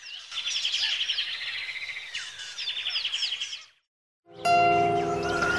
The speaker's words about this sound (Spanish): ¿Y qué vibraciones? canto de pájaros, miles miles de horas en miles de días de cantos de pájaros.